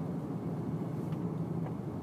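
Steady, low road rumble fills a car cabin, an even droning hum with no voices, constant in level throughout the short stretch.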